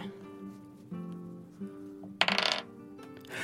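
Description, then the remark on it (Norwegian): Dice clatter briefly across a hard tabletop, a quick burst of rattling clicks lasting under half a second, over a soft, steady tonal backdrop; the dice are rolled for a history check and land a natural 20. “Sånn kunne jeg liksom kaste, Ikke typ det, da, men um, ofte så kan man jo kaste typ terninger for å sjekke om det er noe um, Noe magisk og noe merkelig.”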